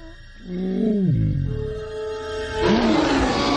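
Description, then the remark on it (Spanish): A deep, rumbling roar from an enormous saber-toothed tiger swells and bends downward, then a second harsher growling roar surges louder over a noisy background, powerful. “El enorme tigre sable está tras ellos.”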